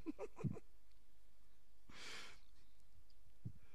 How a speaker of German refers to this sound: Nur man hört dich atmen. Jetzt, wenn, wenn du so was machst, dann wenigstens ohne Atmen.